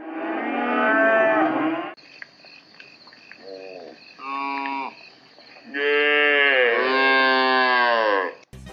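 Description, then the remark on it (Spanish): A cow moos several times, a long loud low call, then shorter, softer lows, and finally a drawn-out bellow, with a steady insect chirr in the background. “en India las vacas son animales sagrados y normalmente hay demasiados choques en las carreteras con estos animales.”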